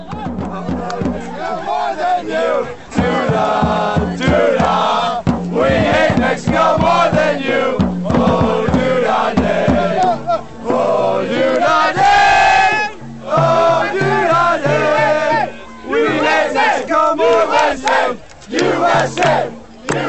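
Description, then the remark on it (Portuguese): A large crowd of football supporters chants against Mexico loudly and in unison, a rhythmic, sustained terrace chant with swelling voices and brief pauses between phrases, continuous throughout. “Vamos ouvir We Hate México, More Than You.”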